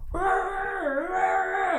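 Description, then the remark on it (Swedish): A person vocally imitates a scream heard at their office at work: one long, loud, sustained wailing cry lasting under two seconds, its high pitch dipping briefly in the middle before rising again, with no other sounds. “min imitation av skrik.”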